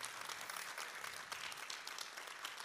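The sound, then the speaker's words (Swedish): Warm audience applause for a church's board, a dense, steady wash of many hands clapping at even loudness for the full stretch, with no voices rising above it. “Ska vi ge en varm applåd till vår styrelse?”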